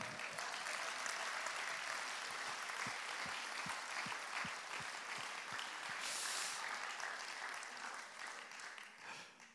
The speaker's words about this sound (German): Hast du es wahrgenommen, Papa? Du hast mehr Applaus gekriegt wie alle anderen zusammen.